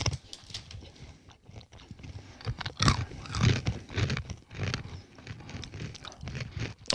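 Loud, crunchy chewing of sugar-coated cashew nuts, with repeated bites and grinding in an irregular rhythm, with no talking.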